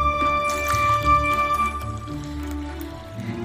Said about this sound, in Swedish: Jag ska hälla upp lite till kaffe här. Mm, jag kan ta lite mer tack.